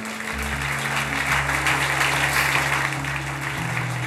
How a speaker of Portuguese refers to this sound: Aplauda Jesus bem forte.